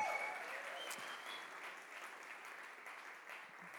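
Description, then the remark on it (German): A church audience at a Sunday service applauds and cheers steadily, a dense wash of clapping with a few whoops rising out of it, sustained at even strength for several seconds before easing slightly. “Komm, lass uns noch einmal laut werden für unseren neuen Campus nächste Woche in Ansbach.”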